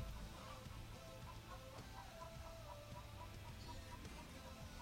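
Roosters call from a distance, a series of short, faint clucking and crowing sounds repeating over a steady background hum, with no talking.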